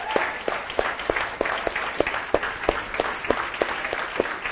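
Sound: audience applause and cheering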